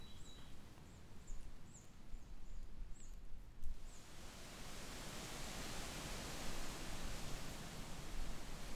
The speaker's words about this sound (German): Im Gegensatz zum ruhigeren Rauschen der Rotbuche hat das Rauschen der Eiche durch die gelappten Blätter und die festeren Äste einen stark ausgeprägten hochfrequenten Raschelanteil.